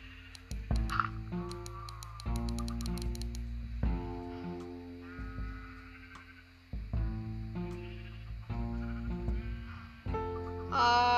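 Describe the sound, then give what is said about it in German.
Several sheep shut inside a fenced pen bleat over and over in a video game, their wavering baas overlapping closely with hardly a pause, alongside brief clicks and clatter from the game. “So, die Schafe habe ich eingesperrt.”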